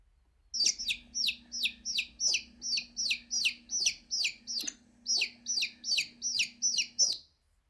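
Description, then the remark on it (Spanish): A bird chirps repeatedly in a steady, quick rhythm, about two high, bright peeps per second for several seconds, clear with no other sounds around it. “Sí, es un pájaro, pero ¿qué pájaro?”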